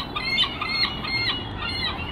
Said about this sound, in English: those are the seagulls that are surrounding our table, taunting us, wanting us to feed them food.